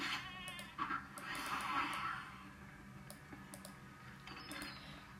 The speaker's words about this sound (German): Ziege.